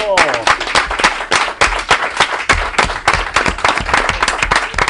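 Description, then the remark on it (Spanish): A burst of applause for the first-place winner of the sixth edition of the Relatos en Cadena contest: dense, steady clapping from a group, loud and continuous for several seconds, with a few excited voices mixed in at the start. “Bueno, momento de emoción, aplausos, deportividad.”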